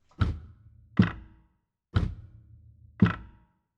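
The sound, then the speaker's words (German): Four dull mechanical thunks from an electric piano's pedal mechanism, like a grand piano's, picked up by the microphone only, in a loose pairing rhythm, each a short low knock with a brief woody rattle trailing off, no voices. “Jetzt hören wir nur mal die Pedals von dem Pickup.”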